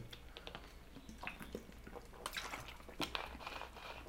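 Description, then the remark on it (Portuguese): Someone drinks water: soft wet sips and gulps with small clicks and a couple of sharper swallowing sounds, quiet and unhurried, with no talking. “Eu vou até tomar água para passar essa informação, porque ela é bem importante para você.”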